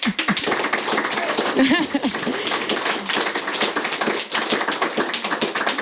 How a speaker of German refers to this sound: es gibt schon jetzt Applaus. Ähm, danke, dass du da bist, aber danke, dass du auch so viele Fans mitgebracht hast.